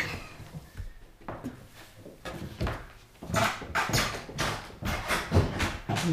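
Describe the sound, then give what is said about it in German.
Old wooden floorboards creak and knock irregularly under shifting weight, a series of dry groans and pops growing busier toward the end, with no one talking. “Die alten Dielen knarzen.”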